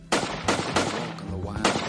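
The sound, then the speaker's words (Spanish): Four sharp gunshots ring out at irregular intervals, each a loud crack with a short echoing tail, over a low background rumble, depicting the shooting of San Francisco supervisor Harvey Milk in his office. “Pero cinco meses después de aquel histórico desfile, el concejal Harvey Milk murió asesinado a tiros en su despacho.”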